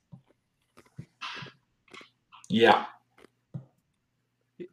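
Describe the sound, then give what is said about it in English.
Crunchy chewing of ice: a few irregular bursts of loud crackling and crunching with small clicks between, and a person briefly speaks. “Just chewing on ice”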